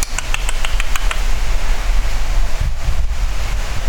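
Strong wind picking up during a thunderstorm roars and buffets against the microphone, a steady low rumble with gusty surges and a few faint high chirps near the start.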